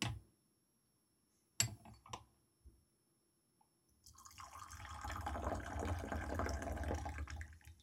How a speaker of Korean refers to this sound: 차를 뺄 때도 이렇게 높은 데서 따라주면은 맛이 굉장히 좋아지더라고요. 옛날에는 이렇게 높이서 따르면 물 튈까봐 무서워서 못했는데 하다 보니까 좀 이제 기술이 붙는 것 같아요.